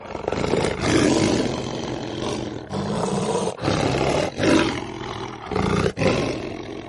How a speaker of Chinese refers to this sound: 但是狮子继续大吼。听得出来，他很伤心。